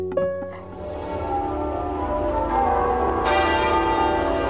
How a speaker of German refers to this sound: Glockengeläut in ganz London, Freitagmittag, Punkt 12 Uhr, zu Ehren der verstorbenen Königin Elisabeth II.